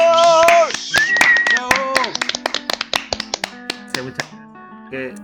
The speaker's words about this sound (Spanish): Así que recibamos con un aplauso a El Desahogo Político. ¡Bravo!